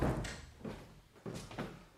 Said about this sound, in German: Und da herum machen wir die Tür zu. Ja, ja. Das machen wir auch.